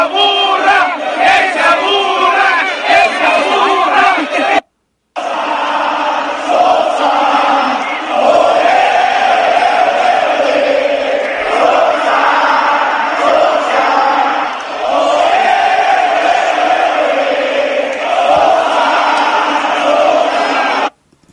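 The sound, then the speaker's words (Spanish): A huge crowd at the Alfonso Lastras stadium chants loudly in unison at San Luis coach Gustavo Matosas after San Luis was heavily beaten, a rhythmic, sustained roar of many voices that breaks off for a moment before surging back and continuing. “Me encontré eh, pues los, los cánticos con los que despidieron ayer después de ser goleado el San Luis de Gustavo Matosas.”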